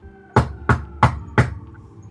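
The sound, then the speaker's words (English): Four firm, evenly spaced knocks on a motel room door, fairly loud, each a sharp thud with a short decay, with no voices. “And then at the door, you hear.”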